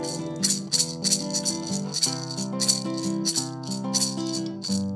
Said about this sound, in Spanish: Mi lindo limón, vamos con esas maracas.